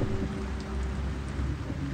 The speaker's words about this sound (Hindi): सोचिए कि कई दिनों से लगातार बारिश हो रही है पूरा आसमान काले घने बादलों से ढका हुआ है